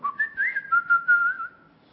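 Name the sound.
human whistling a melody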